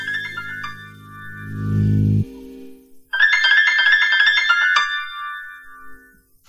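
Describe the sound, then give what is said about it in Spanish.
The iPhone 'Blues' alert tone plays alone: a low, buzzy phrase swells and stops, then a brighter run of chiming synthetic notes follows after a brief pause, loud. “Blues. Blues. Seleccionado. Blues.”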